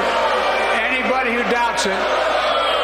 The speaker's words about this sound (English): So here's the mayhem that broke out on the Republican side of the House chamber.